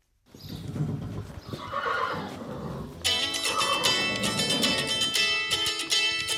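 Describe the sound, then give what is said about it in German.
A horse named Amadeus whinnies loudly and repeatedly in a stable after returning from a ride, its shrill, quavering neighs continuing for several seconds over a background of hooves clopping and shuffling, with no talking. “Wieder ist sie im Stall und schon wieder ruft jemand an und Amadeus, das Pferd, verwirrt einen ganz wichtigen Begriff.”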